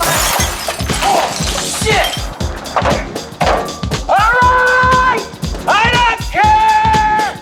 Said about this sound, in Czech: Jackova golfová hůl se jala prověřit kvalitu čelního skla a lakování kapoty vozu Mercedes-Benz.